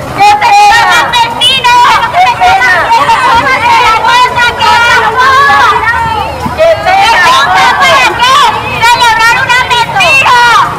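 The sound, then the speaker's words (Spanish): A loud crowd of protesters in front of the Catedral Metropolitana de Asunción heckles a wedding held during the pandemic, shouting over one another in a continuous, dense clamor of raised voices, with no pause for the full length. “Y así escuchábamos el audio del momento del escrache.”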